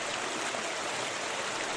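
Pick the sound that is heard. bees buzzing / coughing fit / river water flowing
river water flowing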